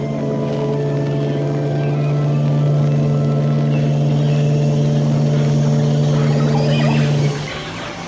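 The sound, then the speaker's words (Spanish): The engine of a large, mouse-grey steamboat drones with a steady low hum and layered tones, holding loud and constant for about seven seconds before abruptly dropping off near the end. “¡Han regresado! Vamos a estar aquí y traen un vapor más grande que hace mucho más ruido.”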